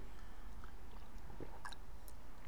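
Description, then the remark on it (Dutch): Someone takes a quick sip of water, with faint wet mouth sounds and a soft swallow against a low background hum, no talking. “Even een slokje water, sorry.”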